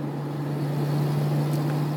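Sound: tattoo machine buzzing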